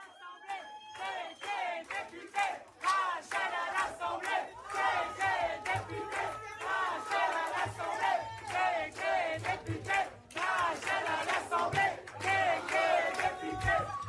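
A dense crowd of activists and supporters cheers and chants in celebration of Rachel Keke's election win, many voices shouting together in rhythmic bursts, loud and sustained throughout with no break.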